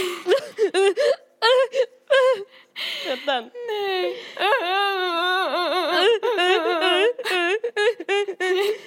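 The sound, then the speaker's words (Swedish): A voice imitates ugly, blubbering crying, with wavering, wailing sobs and choked gasps in uneven bursts, fairly loud, broken by a couple of short spoken words. “Det var, det var ingen eh, fin gråt alltså, det var så här.”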